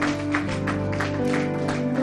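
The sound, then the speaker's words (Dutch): A standing church audience claps steadily to give God a hand after a message, a dense patter of many hands, over sustained musical tones humming underneath throughout. “And why we give God a hand laten we God een applaus here this geven.”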